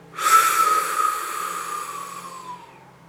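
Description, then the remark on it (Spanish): A single long, deep breath drawn in through the mouth with pursed lips, airy, with a thin whistling tone that slowly sinks in pitch before fading out after about two seconds. “Inhalas profundamente por la boca con un silbido.”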